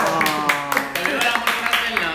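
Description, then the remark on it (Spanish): Steady rhythmic hand clapping, about eight sharp claps in quick even succession, runs over a sustained, voice-like tonal hum that continues underneath throughout. “aplauso!”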